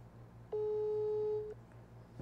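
A single steady, mid-pitched telephone ringback tone sounds for about a second on an unanswered call, loud and even, then stops, leaving a faint low hum behind it.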